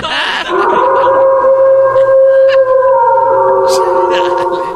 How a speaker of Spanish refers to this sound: Pongan el maldito lobo.